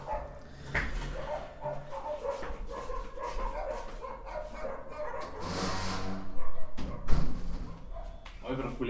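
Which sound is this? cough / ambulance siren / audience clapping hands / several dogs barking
several dogs barking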